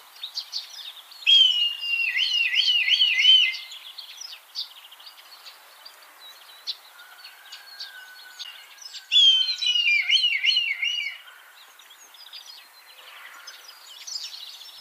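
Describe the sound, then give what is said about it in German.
A red kite's contact call, a characteristic call between mates: two bursts of loud, high, quavering whistles that wobble up and down, separated by a fainter, long, steady whistle, with no talking. “ist also ein charakteristischer Kontaktruf zwischen den Partnern und auch manchen anderen Greifvögeln oder Konkurrenten gegenüber.”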